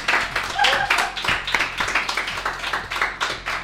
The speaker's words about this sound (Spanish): No sé que estáis aplaudiendo.